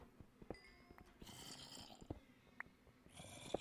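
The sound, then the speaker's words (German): Low, raspy zombie groans from a video game rumble and rattle in a snore-like way, rising and fading over several seconds with a few sharp clicks and ticks scattered through, fairly quiet and without talk. “Ich habe ein bisschen Angst, weil ich höre die ganze Zeit Zombies.”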